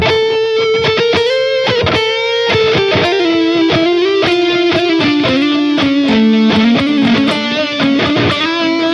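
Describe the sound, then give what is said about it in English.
A distorted electric guitar, a Majesty, plays through an Axe-Fx amp modeler preset with reverb and delay: a steady run of sustained, rich harmonic notes with a heavy amp-style tone, loud with no talking. “And I'm playing it on Majesty, and I guess a good guitar for the … thing.”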